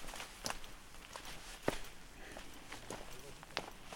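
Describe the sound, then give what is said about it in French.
Footsteps crunch along a dirt path winding uphill among the trees of a forest at an unhurried, uneven pace, each step a sharp scuffing crackle over a low outdoor background hush. “Et je continue à monter sur ce chemin qui serpente au milieu des arbres.”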